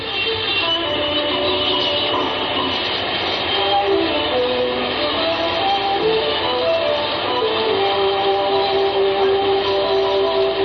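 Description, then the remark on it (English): A dense, steady wash of electronic noise from slot machines in a slot machine emporium on the Ginza in Japan on a windy night, layered chimes and tonal beeps sustaining over a constant mechanical din, with no speech. “Those are slot machines you're hearing.”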